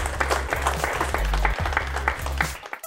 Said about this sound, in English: Okay, so thanks very much. Another round of applause, everyone. Thank you. Thank you.